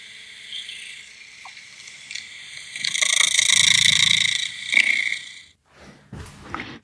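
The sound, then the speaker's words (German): A cat makes close, breathy snuffling and purr-like vocal sounds, swelling into a louder rasping stretch midway, then trailing off with a few short snorts. No one speaks. “Ich glaube, das ist von der Katze eine, eine Schmuseaufforderung.”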